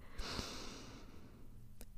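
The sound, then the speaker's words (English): A long, deep breath drawn in through the nose, a soft airy rush lasting about a second, fairly quiet, followed by stillness and a faint click, taken as the inhale of a sighing breath exercise. “So you take a big breath in, like um, I'm gonna, I'm sorry if you don't like the sound of breathing, but you go,”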